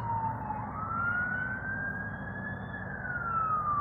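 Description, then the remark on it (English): A wailing emergency siren rises and falls slowly over a steady low rumble of traffic, sounding muffled, heard from inside a studio with the sirens outside. “can hear uh, yeah, sirens coming from uh, outside of the uh, the studio here.”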